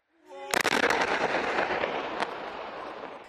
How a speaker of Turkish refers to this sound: çekim yaparken bölge bir kez daha bombalandı.